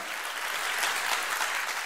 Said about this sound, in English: you're glad that you're saved and that Jesus loves you, that He redeemed you and He bought you with a price, and you have salvation, you've been born again today, give the Lord the best hand clap of the morning. Would you do that?